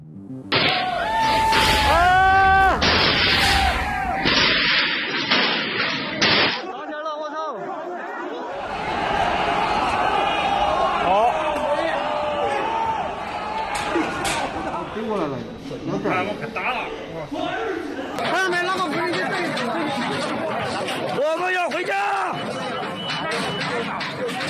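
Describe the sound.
A loud, agitated crowd of workers clamors in violent clashes at a protest at the world's main iPhone factory in Zhengzhou, China: raised shouts rise over dense overlapping voices, with a brief break before the uproar resumes and continues throughout.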